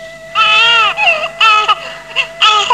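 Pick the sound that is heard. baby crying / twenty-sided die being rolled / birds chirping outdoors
baby crying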